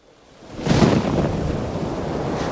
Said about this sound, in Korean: 갑자기 하늘에서 천둥 번개가 치고 파도가 넘실거렸어요.